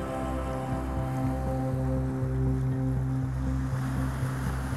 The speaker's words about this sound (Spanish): Sientes la respiración profunda, como el agua te mece, el oleaje te mece.